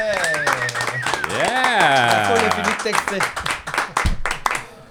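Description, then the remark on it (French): A crowd claps in a steady, dense patter while voices whoop and cheer over it, rising and falling in pitch, before the applause thins out toward the end. “La foule, la ah foule.”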